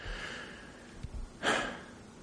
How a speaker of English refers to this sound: I really excuse me I'm sorry I keep clearing my throat I got some clear American strawberry water stuck in it